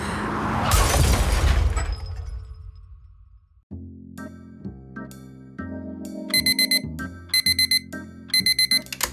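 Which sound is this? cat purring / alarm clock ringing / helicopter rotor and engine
alarm clock ringing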